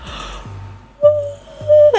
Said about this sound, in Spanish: Disculpen, bostezo.